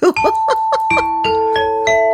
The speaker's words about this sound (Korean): 박구윤씨, 너무 땡만 치지 마세요. 딩동댕동 가끔 쳐주세요.